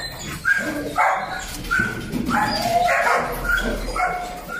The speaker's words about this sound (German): Im Stockwerk über uns leben Hühner und am Gang neben einer kleinen Küche sind Hunde in den Zwinger eingesperrt, die jedes Mal laut bellen, wenn wir vorbeigehen.